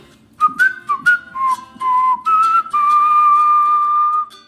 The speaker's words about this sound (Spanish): El murciélago impresionado se mojó los labios y silbó un acompañamiento.